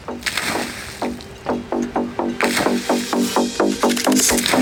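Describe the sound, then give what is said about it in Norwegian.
Rainwater, well over 100 litres collected during a western Norwegian downpour, sloshes back and forth in quick, rhythmic surges inside the accordion-like joint of an 18.5-metre articulated bus. The sound is fairly loud, over a steady low engine hum. “For på taket av den 18,5 meter lange leddbussen så har det under et vestlandsk regnskyll samlet seg langt over 100 liter med vann i det trekkspillaktige leddet.”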